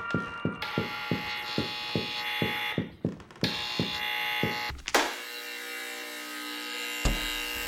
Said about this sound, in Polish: Just go for the door. Listen for the buzzer.